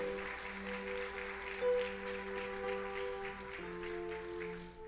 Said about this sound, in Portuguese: Dá um glória a Deus e um grito de júbilo ao Senhor. Aplauda mais forte ao Senhor.